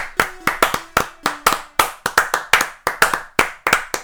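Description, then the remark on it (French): Hands clapping to applaud the end of a 115-metre run: roughly a dozen crisp, loud claps in a slightly uneven rhythm over a few seconds, with no one talking. “Un applaudit, bravo.”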